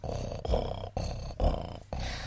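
A cat, Lulu, purrs, a steady low rumbling that swells and dips in a regular rhythm about twice a second, with no other sounds around it.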